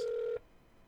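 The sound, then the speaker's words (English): A single steady electronic telephone tone from a phone call on hold while seeking authorization for medical tests sounds clearly for a fraction of a second and then cuts off abruptly into near silence. “And this sound you hear in the background is 13 minutes of phone call, time wasted, of me getting approved authorization for medical tests”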